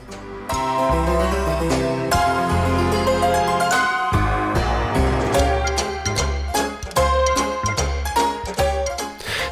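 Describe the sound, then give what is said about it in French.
Retro 1970s TV-theme-style instrumental music, recalling the theme of the 1970s French TV series Les Brigades du Tigre, plays loud with punchy rhythmic bass notes under bright, busy melodic lines, running continuously with no voices. “C'est vrai, c'est vrai, on entend un petit peu les brigades du tigre.”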